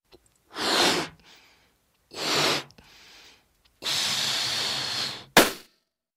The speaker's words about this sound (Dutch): Dan zitten wij met het kleine ballonnetje. Die blaas ik even op.